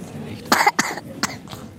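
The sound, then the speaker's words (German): A sick girl of almost three, who has a cold and fever, coughs at an airport at night: a harsh double cough followed by two or three shorter, lighter coughs spaced out over a couple of seconds, with no talking. “hat sich erkältet, hat Husten und Fieber.”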